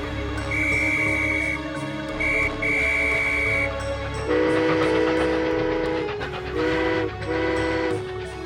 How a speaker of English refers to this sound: After a while, the train driver said, there's a train following us with many policemen on it. What do they want?